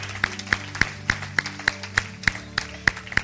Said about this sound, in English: I, I didn't know if everybody was going to be able to clap on that one.